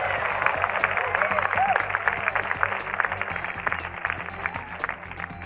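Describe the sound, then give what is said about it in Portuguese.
Steady applause from a crowd, a dense wash of many hands clapping at an even, loud level for several seconds, with a few faint voices mixed in. “Eu gostaria de pedir uma salva de palmas aos extraordinários heróis da Terra.”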